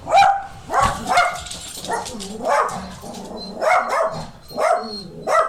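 A dog barks about six times in an irregular series of sharp, fairly loud barks, close by, with short gaps between them and no one talking.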